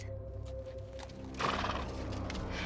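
A horse whinnies while hooves clop and shuffle beneath it, a brief rising neigh over steady hoof sounds with no voices, as a woman struggles to heave a man up onto the horse.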